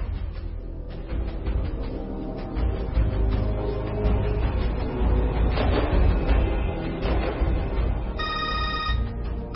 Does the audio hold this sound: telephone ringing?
yes